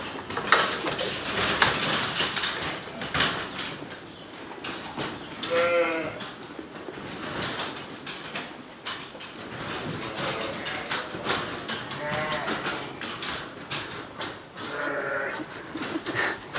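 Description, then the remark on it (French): A large flock of ewes, given maize, bleats continuously and overlapping, loud, with a busy clatter of feeding and movement throughout as the feed conveyors are opened for them to eat, no speech. “Et là maintenant je vais ouvrir les tapis pour que les brebis mangent.”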